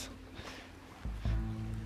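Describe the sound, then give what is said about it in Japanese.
Ocean waves wash against the shore in a continuous, fairly quiet rush, with a low rumbling surge swelling up in the second half as a wave breaks. “いや波の音は聞こえてますかね波内側に来ておりますちょっとうるさいかもしれないです”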